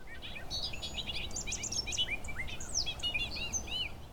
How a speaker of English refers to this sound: No bird sounds quite like the bobolink.